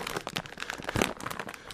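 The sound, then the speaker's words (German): A bag of paprika-and-herb bread chips crinkles and rustles as it is pulled open, with dense, irregular crackling bursts and a sharper tearing crunch near the middle. “anhand dessen ihr herausfinden müsst, welche Tüte der Nanny gerade öffnet”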